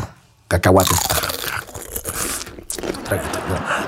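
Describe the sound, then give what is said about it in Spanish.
A voice imitates a man sipping alcohol in a hospital bed while hooked to an IV drip, with a wet, noisy slurp followed by a few quieter sucking and gulping sounds. “O sea, quién sabe cómo cajos le hizo, pero consiguió alcohol a la vez que estaba conectado al suero y le estaba pegando al trago.”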